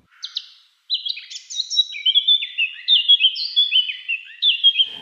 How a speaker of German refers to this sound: Es gibt zum Beispiel da Mönchsgrasmucken, die wo einfach nicht zoberst in der Hecke sitzt, sondern irgendwie rein, aber äh, wahnsinnig laut ist.